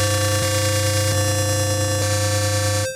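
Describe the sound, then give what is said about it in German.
A steady, bright FM synthesizer tone with a buzzy sawtooth-like timbre, made by a square-wave carrier modulated by a sawtooth modulator at a 1.19 to 1 ratio, rich in evenly stacked harmonics, held loud and alone for about three seconds with faint clicks as it sustains, then cutting off. “Das ist ein klassischer Sägezahn.”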